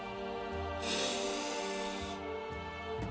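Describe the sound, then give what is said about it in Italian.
One long, deep inhale drawn in through the nose, airy, swelling for over a second before fading; no one speaks. “Mise il naso fuori e prese un gran respiro.”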